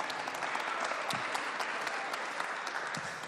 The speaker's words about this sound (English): Jason, give Jason a round of applause.